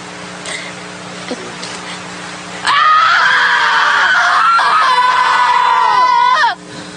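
After a few seconds of quiet background hum, a person lets out a loud, sustained scream lasting about four seconds, wavering in pitch before cutting off abruptly.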